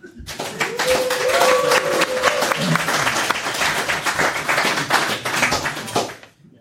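A large audience that has gathered for a live recording breaks into sustained applause for itself. A dense wash of many hands claps at a steady loud level for several seconds before fading out, with a few faint voices and whistles mixed in.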